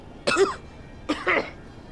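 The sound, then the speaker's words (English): Two harsh, forceful coughs, each a rough burst with a brief gap between, and no talking around them. “And I, I as I like kind of stumble back, I'm gonna fall back onto the floor, and then I'm gonna start like, like huffing and puffing, trying to catch my breath, and then I just start coughing.”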